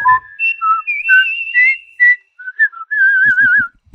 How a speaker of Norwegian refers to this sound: Nei, men da plystrer vi litt igjen, gjør vi ikke det?